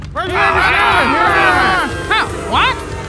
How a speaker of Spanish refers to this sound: Pero la multitud siguió gritando cada vez más fuerte. Crucifícalo, queremos que muera.